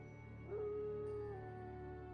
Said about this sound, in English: off in the distance, you could hear uh, wolves howling,